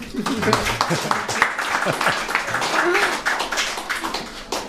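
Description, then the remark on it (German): A burst of audience applause at a mill festival welcoming two bakers, dense and steady clapping, with scattered voices and cheers mixed into the crowd noise. “begrüßt mit mir mit einem gebührenden Applaus unsere brutalen Bäcker aus Denzlingen und Brak,”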